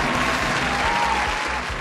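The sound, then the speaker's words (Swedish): Steady, dense applause from a group for a correct quiz answer, loud, with many hands clapping continuously throughout without a break or any voices standing out. “Applåd.”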